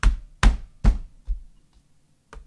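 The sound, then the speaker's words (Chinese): Someone deliberately bangs on a table to record noise for an audio-editing demonstration: a quick run of three heavy, booming thumps, then a softer knock, a pause, and another thud at the end. No one speaks. “我刚才专门砸了几下桌子啊，砸了几下桌子，然后那个敲了一下键盘。”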